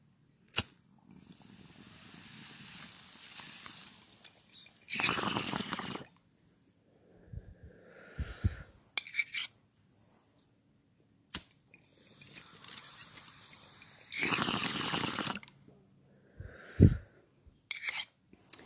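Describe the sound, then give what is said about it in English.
A lighter clicks, then water bubbles and gurgles steadily through a bong during a long inhale of Mimosa OG, a sativa, ending in a breathy rush; the sequence happens twice, with a few soft thumps and no talking. “So, without further ado, let's take this last bong hit of Mimosa OG, um, which is an amazing sativa for waking Baking.”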